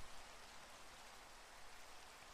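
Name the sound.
rain falling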